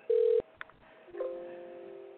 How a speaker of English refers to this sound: I'm gonna try this. Nine one three. Let me see if I can get him. It's just dialing.